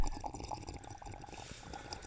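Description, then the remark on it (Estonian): A quiet sip from a drink: soft slurping and wet liquid sounds with small mouth clicks, lasting a couple of seconds with no talking. “sipi aeg”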